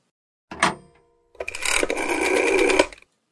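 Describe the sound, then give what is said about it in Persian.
A brief clunk like a handset being picked up, a pause, then a loud mechanical whirring and clicking as a telephone is dialed to call a small hometown during a bus stop. There is no talking, and no clear ringing follows. “ناخداگاه تلفن رو برداشتم و به شهر کوچیکم زنگ زدم.”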